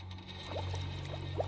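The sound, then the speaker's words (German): Herring farts recorded underwater: three brief, faint ticking blips with a bubbly upward squeak, irregularly spaced over a steady low underwater hum, with no voices. “Und das, was ihr da hört, sind vielleicht die Pupse von einem Hering.”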